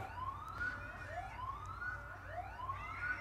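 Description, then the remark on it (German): A siren wails in repeated rising sweeps outdoors over a low steady background rumble, with no talking. “Das ist der Feueralarm im Scheck?”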